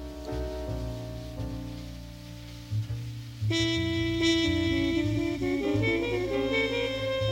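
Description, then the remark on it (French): A jazz recording played by an algorithm as a canon, doubled against itself with a slight delay as if by two playback heads, smearing into an echo; mellow sustained chords over low bass, swelling louder and brighter about halfway through, with no voices. “Mais là, il y a un décalage, t'entends Un décalage qui crée comme un effet d'écho.”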